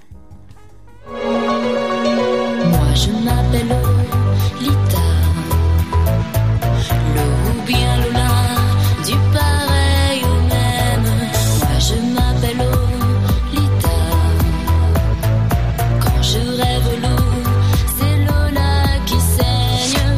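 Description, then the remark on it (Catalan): A French-language pop song plays loudly. A brief, sparse intro gives way after a couple of seconds to a full, steady band groove with a driving beat that continues throughout. “I estàvem repassant una mica els aniversaris també per posar-nos al dia pel que fa a la, a, a, al tema dels aniversaris musicals i mira, doncs n'agafem un simplement de destacat, un que té accent francès i que sona així.”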